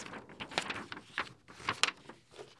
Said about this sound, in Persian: خب نامه بنویسیم کاغذمون اینجا هست صدای کاغذ